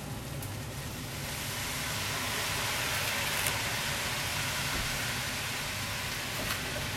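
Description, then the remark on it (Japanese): A steady, loud sizzle fills the whole stretch as cooking sake taken from the fridge is poured into a hot pan of vegetables and Kokun sausages, with a few faint clicks and no voices. “ちょっと水水もいいんですけどせっかくなんでちょっと料理酒を入れようかなえー、っと料理酒冷蔵庫から取り出しましたざざっと入れます”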